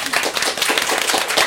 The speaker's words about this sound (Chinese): 我们鼓掌了。